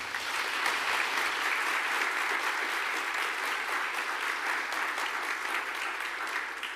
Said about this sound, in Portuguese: Aplauda Jesus por isso.